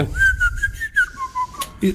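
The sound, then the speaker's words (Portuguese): A person whistles a short, wavering tune, the pitch rising and falling in a single sustained line for about two seconds, clear over faint low background noise. “Isso é só eh, falta de chá, má educação, mas de resto, pessoas que assobiam porque estão felizes e porque lhes apetece assobiar, não acho mal.”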